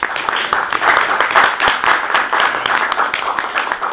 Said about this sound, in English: Okay, so why don't we um, why don't we give a round of applause, another round of applause.